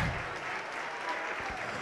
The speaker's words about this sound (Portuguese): Vamos glorificar e aplaudir por cada vida que está chegando aqui na frente agora. Oh glória!